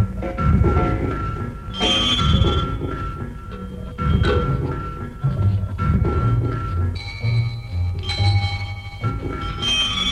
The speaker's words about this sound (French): C'est d'ailleurs une des gloires de la musique concrète que d'avoir fait un son de violon avec un piston de locomotive et un ronronnement d'avion avec une note de piano.